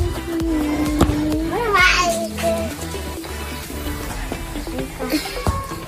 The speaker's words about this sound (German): Die Kinder spielen zusammen.